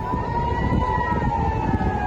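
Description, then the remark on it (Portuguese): A steady, wailing rocket warning siren in southern Israel holds a sustained tone over a dense rumble of low background noise, sounding loud and continuous throughout with no pauses or voices. “Ao longo do dia e da noite, sirenes de foguetes continuam a soar no sul do país.”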